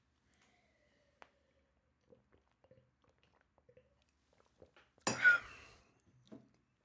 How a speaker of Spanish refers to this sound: Ya me estoy quedando sin voz. Ya me, ya me raspa un poco mi garganta. Voy a tomar un poco más de agua.